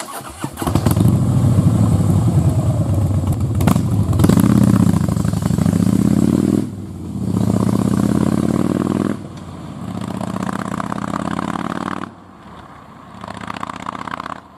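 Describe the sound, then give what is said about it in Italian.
A motorcycle engine fires up and pulls away as Wolf and Winston ride to Scassabotte, the city's disreputable outlying quarter. Its loud roar climbs in pitch through several gear changes before easing off toward the end. No voices. “Wolf e Winston arrivano a Scassabotte, il quartiere periferico della città, Parcheggiano la moto e si dirigono verso un gruppo di cani che fanno capannello intorno a qualcosa.”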